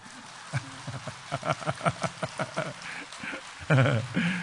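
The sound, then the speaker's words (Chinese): An audience breaks into a quick run of sharp, fairly rhythmic claps that swell and then thin out, before a voice starts speaking loudly at the end. “你们以为我又要叫你们鼓掌了？哎，又鼓掌了。现在该鼓了。”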